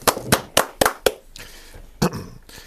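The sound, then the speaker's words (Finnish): Two radio hosts stand up and applaud Left Alliance chair Paavo Arhinmäki, a studio guest. A few sharp hand claps come in a quick, even rhythm, five crisp smacks in about a second, then a pause and one more clap, with a faint hiss between them. “Valitettavasti kuulijat ei nähnyt, miten molemmat juontajat nousivat seisalteen antavaan vanhojen hyvien aikojen kunniaksi aplodit.”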